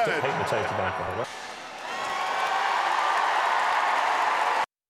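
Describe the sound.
A voice is heard briefly, then a loud, dense wash of audience cheering and applause takes over and holds steady for several seconds before cutting off abruptly.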